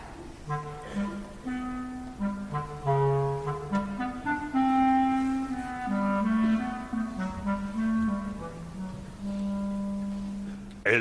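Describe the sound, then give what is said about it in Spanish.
A clarinet plays the cat's theme alone from Peter and the Wolf, a musical tale in which each character is played by a different orchestral instrument. It is a smooth, sly melody of held and gliding notes in a low-to-middle register, at moderate volume with no voices. “El gato por el clarinete.”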